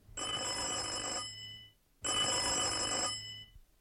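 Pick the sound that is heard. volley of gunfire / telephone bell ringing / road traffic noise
telephone bell ringing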